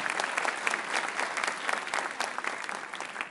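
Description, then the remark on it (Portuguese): A crowd applauds steadily for Jesus, many hands clapping in a dense, crackling wash that holds at an even level throughout with no voices rising above it. “Se é para Jesus, aplauda mesmo, é verdade.”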